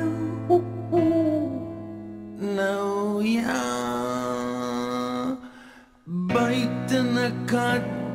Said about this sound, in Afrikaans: En sien nou daar's 'n uil.